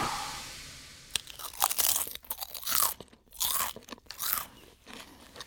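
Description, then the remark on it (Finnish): Loud crunching of potato chips, a series of sharp brittle crackles in irregular bursts with chewing between them, no voices present. “Kuuntelet Sipsin rouskutusta ja Varo-kertomusta podcastia.”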